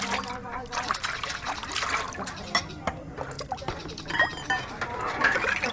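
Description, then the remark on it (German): Women washing dishes under running water on a Sunday morning: a steady trickle and splash with scattered clinks and knocks of crockery, and faint voices murmuring in the background. “Die Frauen spülen Geschirr und kümmern sich um das Essen.”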